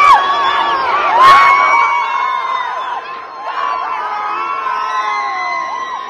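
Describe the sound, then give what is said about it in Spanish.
A dense crowd of football fans shouts and cheers continuously for several seconds, many overlapping voices yelling at once, with a brief louder burst early on before the roar settles into a steady din. “gente está gritando.”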